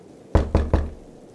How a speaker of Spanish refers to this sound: Por su parte, los golpes en la puerta, pasos y susurros por toda la casa no se hicieron esperar.